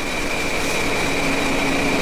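A dense, steady roar of heavy engine-room machinery aboard a ship on the Baltic Sea, with a constant high whine and a lower hum running through the unbroken rumble. No one speaks.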